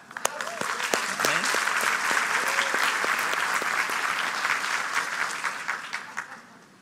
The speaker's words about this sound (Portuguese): Eu queria que você aplaudisse também esse casal